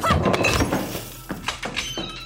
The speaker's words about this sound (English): You kick over a table to block their path, then lunge for the door.